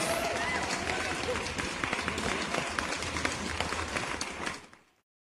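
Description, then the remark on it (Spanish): A crowd applauds with a dense, steady patter of many clapping hands that holds for about four seconds, then tapers off quickly into silence. “Aplausos, aplausos, regresamos.”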